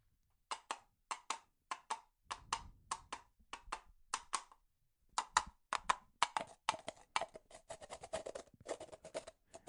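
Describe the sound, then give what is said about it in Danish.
Hollow coconut shells are knocked together as a Foley sound effect to mimic a horse's hooves trotting, starting at a steady walk-trot rhythm, pausing briefly, then resuming faster and denser like a trot. Crisp and loud, with no talking. “Det er nemlig det, at øh, en lyd så simpel som en kokosnød, der slår mod hinanden. Vi kan lige høre den her, lige om lidt. Det bliver til en hestelyd.”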